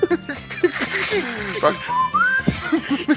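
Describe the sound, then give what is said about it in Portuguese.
A person whistles a short rising tone, mimicking a whistling fart, over lively voices talking and chuckling. “ele não pode peidar de noite, porque o ar bate no osso, ecoa e faz assovia, né?”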